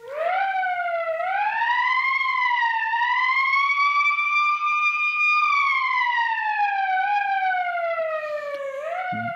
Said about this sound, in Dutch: U krijgt nu een aantal voorbeelden van sirenes. Dit is een sirene als een kind onverwacht de weg oprent die schrikt van een sirene.